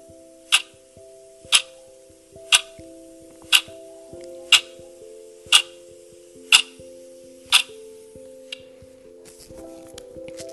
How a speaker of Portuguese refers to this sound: Na meditação de hoje, ao ouvir o som de um relógio, vamos imaginar que somos o seu pêndulo.